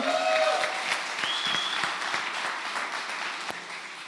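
Audience applause fills the whole stretch, a dense, steady patter of many hands clapping at an even, moderately loud level, with a brief whistle-like tone early on and no talking.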